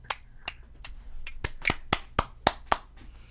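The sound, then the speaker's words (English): About ten sharp hand claps in a steady rhythm, the first few soft and spaced out, then louder and quicker, with no one talking. “If you'll excuse me for a second, I need to clap that.”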